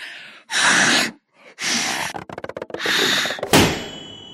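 During a balloon-blowing contest, several long, breathy puffs of air blow into a balloon, a quick rubbery flutter, then one loud, sharp pop as the balloon bursts and tears.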